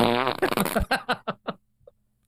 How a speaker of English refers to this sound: That's farting.